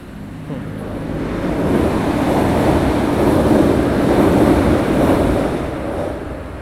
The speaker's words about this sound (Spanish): Ah, el tren, el tren.